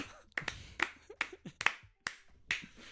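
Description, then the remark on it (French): Hands clap in a steady rhythm, about seven sharp claps spaced evenly with brief gaps between them and no voices. “je vais parler de Jules, mesdames et messieurs, on applaudit.”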